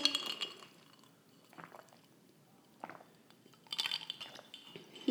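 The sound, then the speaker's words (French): Ice cubes clink against a glass of matcha in two short bright bursts, at the start and again near the end, with quiet sipping and swallowing of a big gulp of matcha in between. “Vous allez entendre ma petite glace.”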